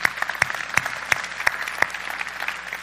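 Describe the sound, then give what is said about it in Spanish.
An audience claps steadily for a couple who have been pastors for 35 years, a dense patter of many hands with a few sharper, louder claps standing out at a roughly regular pace throughout. “Estas son gente, mire, wow, vamos a darle un aplauso a ellos.”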